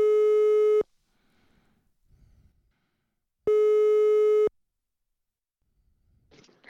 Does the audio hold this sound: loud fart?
no